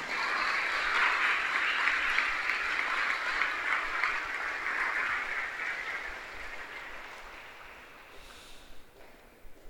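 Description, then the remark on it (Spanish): Loud, sustained audience applause for those who serve, a dense crackle of many hands clapping that holds steady for several seconds and then gradually thins out toward the end. No one speaks over it. “Vamos a dar un fuerte aplauso a los que sirven.”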